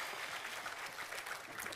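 An audience breaks into a round of applause, a dense, steady wash of many hands clapping at an even level throughout the short burst.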